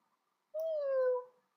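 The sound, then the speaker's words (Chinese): A single drawn-out cat meow, clear and moderately loud, starting higher and sliding slightly lower in pitch before trailing off, heard alone with no talking around it. “他给小星星喝牛奶，喵”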